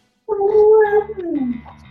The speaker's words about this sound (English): Oh, I'm so sorry. I have a dog and she's probably going to talk.